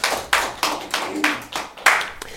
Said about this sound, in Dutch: Ja, zeker, applaus.